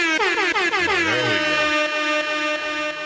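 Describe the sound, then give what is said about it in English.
A loud, sustained air horn blast played as a radio contest sounder for a concert ticket giveaway, with a swooping, warbling pitch at the start, then holding steady for about three seconds without any talking over it. “You want to give the sounder”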